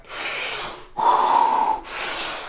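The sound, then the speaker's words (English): Three big, forceful breaths in a row: a rushing inhale, a louder exhale with a hoarse, tonal edge, then another rushing inhale. Strong and airy, with no talking. “bro, I'm like taking massive deep breaths.”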